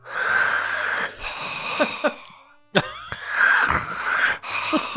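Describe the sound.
A voice imitates the heavy, wheezy sleeping breaths of a man who fell asleep in a cinema seat before the film began: two long rasping snore-like inhalations separated by a brief pause, fairly loud with no other talk.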